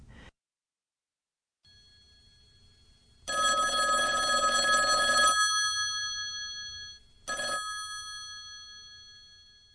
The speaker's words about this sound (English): About an hour later, Karen's phone rang.